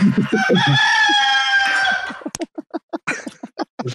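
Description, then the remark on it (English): A rooster crowing sound effect played from a soundboard: one loud, long, strained cock-a-doodle-doo, then a quick series of sharp clucks and squawks, with no one talking. “there's, there's my bird. There's my cock. that's, that's a huge cock.”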